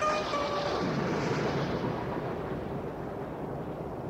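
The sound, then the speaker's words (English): A thunderstorm roars steadily, with a deep rolling rumble and a broad rushing wash that stays loud for about four seconds, easing slightly toward the end. No one speaks. “His nephew looked at him with frightened eyes and ran away into the storm.”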